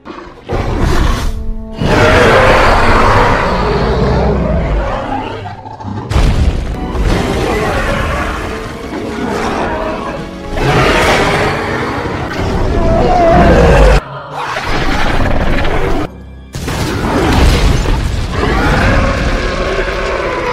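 Several long, loud monstrous roars of the Indominus Rex, a hybrid dinosaur, each a harsh, growling blast separated by brief silences, with crashing, rumbling film-style effects underneath.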